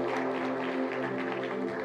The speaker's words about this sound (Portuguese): Uma salva de palmas aí para o nosso.